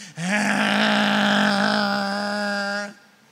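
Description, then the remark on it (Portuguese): A voice imitates a neighbor's pressure washer, said to sound like a chainsaw, used to wash the whole sidewalk at six on a Saturday morning: a steady, buzzing drone held for nearly three seconds, a low harmonic-rich hum that starts abruptly and cuts off sharply. “E ele liga aquele lava-jato que parece mais uma motosserra.”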